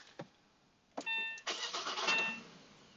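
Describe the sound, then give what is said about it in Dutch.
A car engine cranks and catches, a short burst of rough mechanical turning after a click and a brief electronic chime, then settles into a low hum. No talking. “Hier, ik moet hier nog iets leren aan de auto.”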